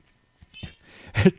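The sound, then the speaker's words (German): A cat gives a single short, clear meow after a second of faint rustling and soft murmuring sounds. “Entschuldigung, hält die Katze Mike Trout für überbewertet oder was möchte sie gerade sagen?”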